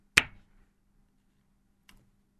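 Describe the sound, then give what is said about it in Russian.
A single crisp, bright finger snap rings out over near silence, followed about two seconds later by a much fainter, softer click, with a low steady hum underneath. “Щелчок президента, и вот вам ручка.”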